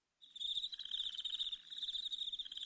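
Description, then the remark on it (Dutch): A dense, continuous trill of a swarm of crickets chirping, steady, with a rapid pulsing rhythm and a brief dip midway before resuming; no voices. “Ik heb mij een zwerm krekels gekocht, Gekocht, hè.”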